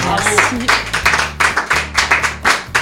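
An audience applauds a woman after her testimony: a dense run of sharp claps, fairly loud and steady, pulsing in quick irregular bursts over a low, humming background.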